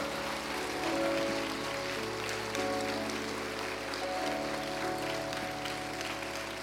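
audience applauding

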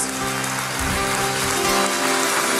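audience applauding

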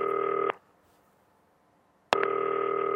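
telephone ringing

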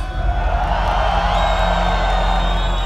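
crowd cheering and screaming

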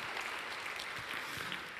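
audience clapping

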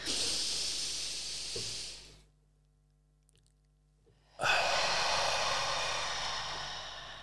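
deep breathing exercise

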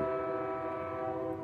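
passing train horn

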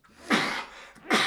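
sneeze

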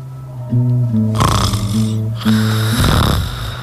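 man snoring

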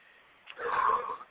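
deep breath

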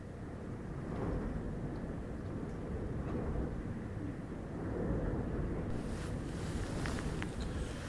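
storm wind and waves

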